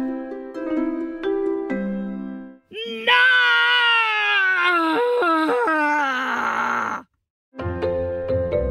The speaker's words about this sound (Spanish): Cuando aquel niño iba a responder, se escuchó un grito lleno de enojo.